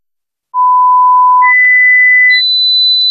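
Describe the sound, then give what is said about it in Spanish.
Three loud, pure electronic beep tones in a Spanish radio advertisement for Sonofim play one after another, each held about a second and each higher-pitched than the last, climbing to a shrill final tone with no voices. “Pitidos, Sonofim.”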